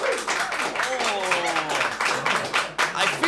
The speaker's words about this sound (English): like some of you clapped twice.